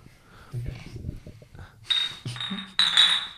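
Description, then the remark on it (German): Glasses clink together in a toast, three bright ringing touches in quick succession near the close, heard over low, murmured voices. “Aber wenn man mal vom Erdinger alkoholfrei, in diesem Sinne mal ganz kurz Prost.”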